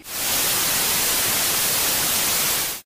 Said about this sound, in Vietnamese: Sau đó chuyển qua tiếng của một chiếc tivi.